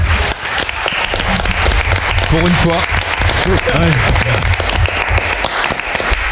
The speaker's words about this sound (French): Applaudissons